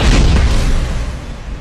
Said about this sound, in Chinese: 哆啦 A 梦及时发现了飞过来的怪物，闪到了一旁，怪物砸在了后边的墙壁上。